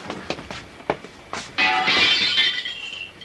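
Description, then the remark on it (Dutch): Window glass of a house is smashed to climb in and open the door: a few sharp knocks and thuds, then a loud bright crash of shattering glass followed by tinkling shards that ring out and fade. “Nou, dan maar het raam.”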